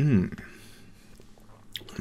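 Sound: sipping beer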